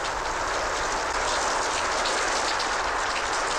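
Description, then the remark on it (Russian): Heavy rain pours down in a dense, steady hiss that stays at an even loudness throughout, enveloping, with no voices or other distinct sounds. “Видите, как хлещет, значит, скоро пройдет.”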